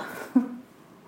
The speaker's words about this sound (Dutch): Ik neem even een slokje water.